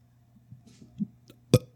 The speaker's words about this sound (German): Bist du jemand, der auf Knopfdruck rülpsen kann?